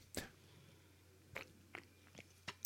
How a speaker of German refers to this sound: Genau, und bis dahin trinken wir einfach weiter Bier. Das können wir ja zumindest noch, ne? Bier trinken und podcasten. Prost. Prost.